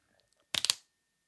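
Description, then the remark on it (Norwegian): A slap bracelet snaps shut around a wrist: one quick, crisp burst of three or four rapid clattering clicks, fairly loud, in otherwise near silence. “Det var lyden av slap bracelets.”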